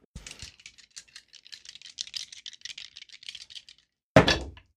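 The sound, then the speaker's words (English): Five dice rattle steadily in a cup or hand for several seconds with quick, light clicks for a Dex and stealth roll in a tabletop role-playing game, then land in one loud clattering throw that fades out quickly. No voices. “yeah, I get five dice on that.”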